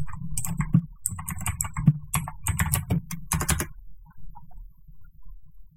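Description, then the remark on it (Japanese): Rapid clicking of keys on a computer keyboard as someone types a search, a busy burst of typing for several seconds that stops abruptly, leaving quiet background noise. “すいません、ちょっとキーボードうるさいですけど、検索します。”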